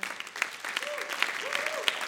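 An audience claps steadily, a dense wash of many hands with occasional sharper claps, while a faint whistle-like tone rises and falls twice in the background.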